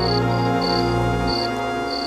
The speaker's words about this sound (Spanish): Igual no es grave, fue mucho peor esa vez que me entró un grillo. Un grillo en un octavo piso debe haber subido por el ascensor pero no se callaba, no se callaba y todo el tiempo hacía ese ruido que hacen los grillos con las patitas.